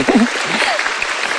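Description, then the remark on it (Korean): A burst of audience applause, a steady dense crackle of many hands clapping, with a brief voice murmuring underneath at the start. “그래서 저는 정말 진심으로 박수 쳐주고 싶어요.”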